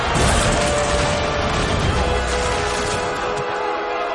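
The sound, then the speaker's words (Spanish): A chariot crashes into the spina barrier after its horse is made to fall, in a loud, dense burst of rumbling and clattering noise that stays heavy for a few seconds before easing slightly, with no voices. “Acerca su rueda un caballo del árabe, lo hace caer y el árabe se estampa contra la espina.”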